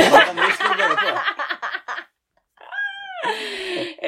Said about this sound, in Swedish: och så kommer det lite mjau. Då är det inte jag utan det är min katt.